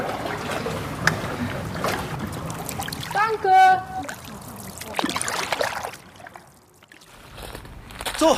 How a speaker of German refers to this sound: Das Unterhaupttor geht auf. Die Ampel stellt sich auf Ausfahrt. Grün.